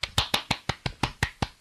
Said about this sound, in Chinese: 不知道不知道收没收进去啊？不是打蚊子哈，绝对是在鼓掌。